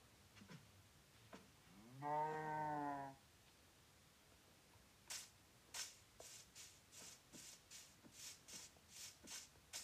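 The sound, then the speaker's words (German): A cow moos once, loud, a drawn-out low call lasting about a second, followed by a steady series of soft tapping, shuffling steps. No one speaks. “Mrs. Kuh, kommen Sie bitte her.”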